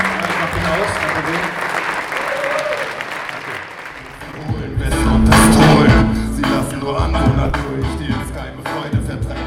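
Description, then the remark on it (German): Audience applause, a dense wash of clapping that swells louder midway before tapering slightly, with some voices mixed in beneath it. “nochmal einen fetten Applaus.”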